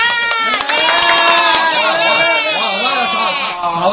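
A group of people shouting and clamoring all at once on request, a loud, dense wall of overlapping voices that stays steady for about four seconds.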